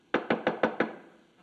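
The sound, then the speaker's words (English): Five quick, evenly spaced knocks on a wooden bedroom door at around 5:30, moderately loud, each one a sharp rap with a short ring-out, then quiet. “we've run into a problem, however, with this little practice because at 5:30 or so, it seems like every other day we're hearing this”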